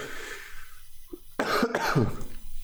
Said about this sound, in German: Entschuldigung, ich bin, habe ein bisschen einen Husten. Darum her hat sich meine Stimme auch ein bisschen belegt und ich hoffe, das zerreißt äh, euch nicht die Ohrwaschel.